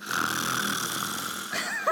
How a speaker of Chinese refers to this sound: 所以那是打呼吧？ 那是跟周公下棋的讯号。